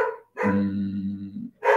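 A dog, upset by something, barks loudly: a short bark, then a long, drawn-out, deep bark that almost turns into a howl, followed by one more sharp bark. No one speaks.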